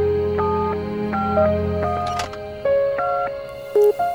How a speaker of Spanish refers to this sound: Tomó el teléfono y le marcó.